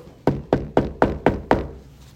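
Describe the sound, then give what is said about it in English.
Six quick, evenly spaced knocks on a door at about 10 o'clock, each a sharp, solid rap with a short ringing decay, fairly loud, with nothing else heard. “About 10 o'clock, you knock on the door.”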